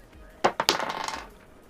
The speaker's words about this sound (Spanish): Tira tus dados.